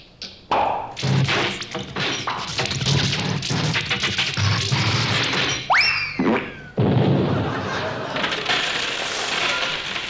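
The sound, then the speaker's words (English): A malfunctioning cash register clatters and jangles noisily for several seconds, with metallic crashing, coin-like rattles and a springy boing partway through before the clanking resumes. “No, I can't even get the cash register to work.”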